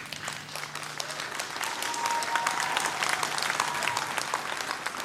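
Sustained audience applause follows an apology for colonial slavery made on behalf of the municipal board of mayor and aldermen. Many hands clap in a dense, steady wash at an even, moderately loud level throughout, with no one speaking over it.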